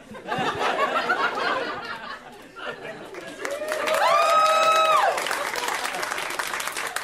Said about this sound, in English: I'm from Chicago. Chicago's like a city. That's not where I expected to get an applause break, but I'll hold